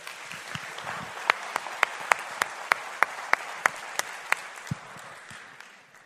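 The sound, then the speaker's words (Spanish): An audience applauds steadily for Rich DeVos and Van Andel, a dense wash of many hands with a few sharp, louder claps standing out before the clapping thins and fades. “Vamos a dar un fuerte aplauso a Rich DeVos y Van Andel, por favor.”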